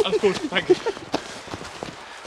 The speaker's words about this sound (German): So, jetzt hast du fast einen Jogger erschlagen, oder? Nein, ich habe mich nur so breit gemacht. Hm. Dann habe ich diese stampfenden Schritte vermutet und habe mich umgedreht und in dem Moment ist er an uns vorbei.